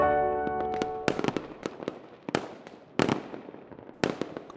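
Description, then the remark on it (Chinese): Fireworks going off: a string of sharp, loud bangs at uneven intervals over a dense crackling roar, with a steady tonal hum at the start that fades after the first second. No voices. “哦，乖乖，这是放烟花，也就是放烟火的声音。”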